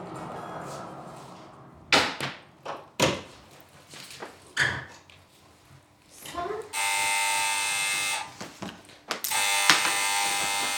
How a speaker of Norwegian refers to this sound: Det er Janka som ringer på døra til Flavia.